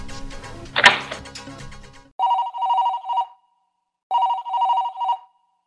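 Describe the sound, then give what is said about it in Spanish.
After a brief rustle and clatter, a telephone rings twice in the office of Minister of Public Works Edgar Montaño, each ring a steady, electronic-sounding burst with a short pause between, clear with no voices. “Sí, hola. En efecto, aquí habla el ministro Edgar Montaño. ¿Quién llama?”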